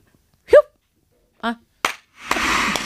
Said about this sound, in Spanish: que era el efecto para que fuésemos 500 personas aplaudiendo.